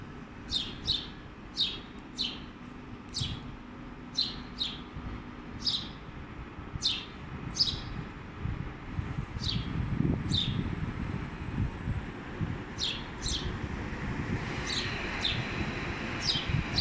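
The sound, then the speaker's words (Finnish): A house sparrow chirps repeatedly in short, bright bursts about five metres away at Pasila railway station on 30 October 2019, over a steady low rumble of train noise, the calls clear against the continuous background din. “päivä lokakuuta 2019 Pasilan asemalla junien ääniä, mutta jos tarkkaan kuuntelee, on täällä ihan perinteinen varpunen.”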